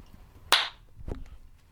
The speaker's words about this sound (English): Could you do me a favour and just do the old clap as well, so I sync up on my own.